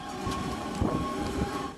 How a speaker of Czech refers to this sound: Tak, tady se v krátkosti zastavím v účinnosti tohoto policisty, který po zásadě svým ducha přítomným rozhodnutím eh, nenechal zastavit tu tramvaj v této zastávce když si vezmete, že krátce na to se vlastně objevil ten střelec eh, na ochozu té budovy.